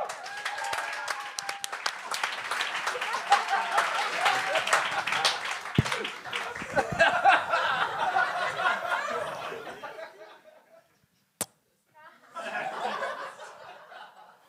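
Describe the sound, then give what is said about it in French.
Audience applause at a comedy show as the next comedian, Marc-Olivier Chicoine, is welcomed: a dense, steady roar of clapping mixed with cheers and laughter for about ten seconds, then a sharp knock and a shorter second burst of clapping. “Un ton d'applaudissement pour Marc-Olivier Chicoine.”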